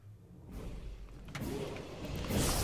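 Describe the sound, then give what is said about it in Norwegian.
A deep, rumbling Viking-style sound effect from the video game Skyrim swells from a low drone into a louder, grinding surge, heard alone without any talking. “Uh, Skyrim, ja, nummer én, og det mandige, herlige vikinglyden.”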